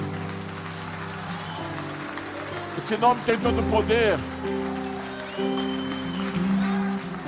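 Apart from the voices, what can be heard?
audience applause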